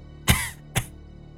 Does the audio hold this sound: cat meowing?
no